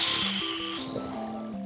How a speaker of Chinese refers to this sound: 炭猪狼的双手握着棍子，快速地挥出水波浪花，咻咻咻！